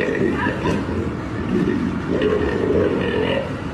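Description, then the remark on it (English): A lion, carried by a woman down a street in Kuwait, grunts and growls continuously, with low rumbling, throaty vocalizations that rise and fall, fairly loud throughout. “Here's a woman carrying a, a lion down the street, making all sorts of very liony noises.”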